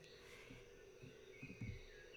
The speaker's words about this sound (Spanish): Así que hoy, aquí, en la naturaleza, entre los coquí y las aves que suenan hermosos